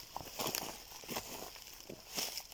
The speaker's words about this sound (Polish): W przypadku tych dźwięków rocha mamy taki problem, że kroki są za głośne.